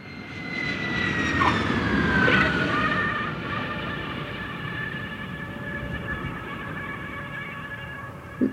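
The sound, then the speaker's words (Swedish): A steady, droning airplane engine roar fills an aircraft cabin during a flight on 17 September 2010, with a constant low rumble and faint whining tones layered on top, continuous throughout with no voices. “Le vendredi 17 september 2010 Euh, je suis dans l'avion.”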